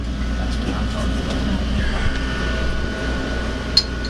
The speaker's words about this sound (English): Lovely sounds of the uh, the, the Red Bull fridge with the. The beer and the water and the Gatorade. Yeah. Pardon? I think there's Gatorade in there too.